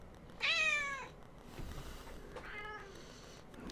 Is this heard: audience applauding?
no